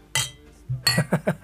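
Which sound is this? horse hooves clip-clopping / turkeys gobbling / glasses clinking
glasses clinking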